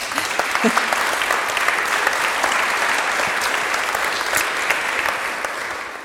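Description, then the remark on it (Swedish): A crowd claps steadily and densely for about six seconds, applauding a guest called up to the front, a continuous wash of many hands with scattered sharper claps, fading slightly at the end. “Ge honom en applåd.”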